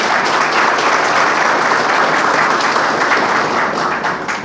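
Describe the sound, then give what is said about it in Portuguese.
A crowd claps in a steady, sustained round of applause for the commander of the 2nd Anti-Aircraft Artillery Group at a Brazilian military ceremony. It is loud and dense throughout, with the clapping thinning slightly just before the end. “uma salva de palmas ao nosso comandante.”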